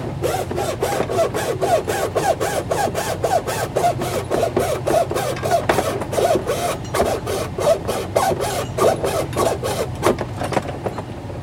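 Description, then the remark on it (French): A utility knife scores through a 3 mm thick sheet with quick, repeated scraping strokes in a steady rhythm, fairly loud, with no one talking. “C'est 3 mm quand même. Cutter, ça me paraît un peu que Je sais pas, la scie sauteuse, moi je suis une feignasse.”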